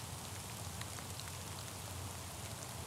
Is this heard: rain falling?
yes